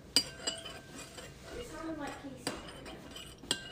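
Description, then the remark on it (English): A spoon clinks against a bowl as gelatin mix is stirred for two minutes in a kitchen, with sharp metallic taps at irregular intervals over a soft swishing sound and faint background murmur. “No, no, no, I think I stirred my two minutes.”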